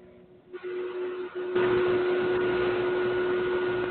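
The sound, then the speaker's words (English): A loud, steady mechanical whir from a computer fan, rising in intensity partway through and then holding a constant droning hum much like a vacuum cleaner, with no one talking. “Boy, that that sounds so much like a vacuum cleaner”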